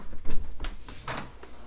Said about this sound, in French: Je vais sortir. Le bruit de la porte.